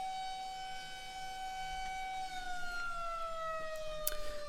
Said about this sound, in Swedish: Och precis när Fellini steg in i undersökningssalen så började sirenerna ljuda över Bologna.